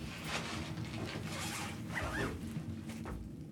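A bag zipper is pulled open in several quick, rasping strokes, with soft rustling and handling noises around it while someone unpacks their bags; no one speaks.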